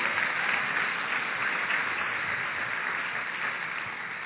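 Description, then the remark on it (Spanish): A church audience applauds steadily during a sermon, praising God, dense overlapping claps forming a continuous wash of sound that holds at an even, fairly loud level throughout, with no voices standing out. “Dale fuerte aplauso, hermano, porque Él es bueno”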